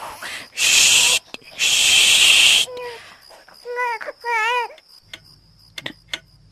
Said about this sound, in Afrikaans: Wat is dit? Dit klink soos 'n baba.